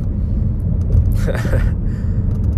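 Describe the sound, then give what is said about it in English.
A steady low rumble of a car engine and tires on the road, recorded on a phone inside the car while driving, constant and fairly loud, with a brief faint breathy sound partway through. “I have to I have to do this so I am still driving right now um, but I'm gonna record this on my phone upload it later um, so okay”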